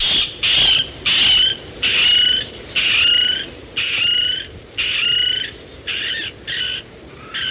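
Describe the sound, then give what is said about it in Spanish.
A Micronesian kingfisher, a species declared extinct in the wild since 1988 and surviving only in captivity, calling: a steady series of about nine loud, harsh, raspy high-pitched screeches, evenly spaced with short gaps, heard alone with no talking. “Pero mira, este animal, el acción micronesio, fue declarado extinto en estado silvestre desde 1988.”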